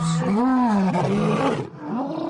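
A lion at a temporary rescue center for lions taken from traveling circuses roars loudly, a deep rising and falling bellow with strong harmonics, followed by a shorter rumbling grunt; no speech accompanies it.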